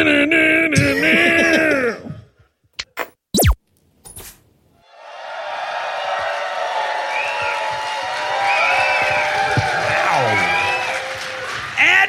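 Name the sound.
audience applause and cheering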